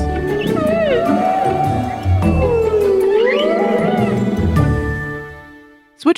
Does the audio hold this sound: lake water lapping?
no